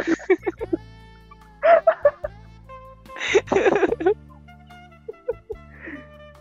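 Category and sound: human body sound, hand clapping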